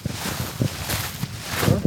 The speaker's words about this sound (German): Jetzt geht sie durchs Gras.